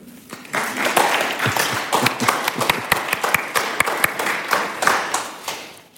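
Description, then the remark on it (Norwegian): Sustained applause from an audience before a reading at a literary event, many hands clapping densely with sharp individual claps standing out, steady and fairly loud for several seconds before tapering near the end. “Så jeg tror vi tar en applaus”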